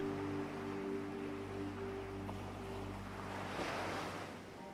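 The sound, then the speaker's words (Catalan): Ocean waves wash steadily onto the shore, with one wave swelling and breaking more loudly near the end, over a low, constant hum. There is no talking. “Mira així la impermanència de tot, com les onades, com el teu caminar per la sorra.”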